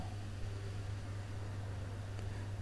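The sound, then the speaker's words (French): A steady, soft rush of wind moving through the leaves of a tree at an apartment building during the summer holidays, continuous and fairly quiet, with a low constant hum underneath and no voices. “Et là, on entend l'arbre qui chante avec le vent.”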